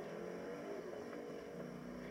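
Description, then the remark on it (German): A steady, droning car engine in a video game hums continuously, with a dense, buzzing motor tone and slight shifts in pitch as the car drives along. “Oh, mal, Alter, das Auto ist ja noch krasser als der.”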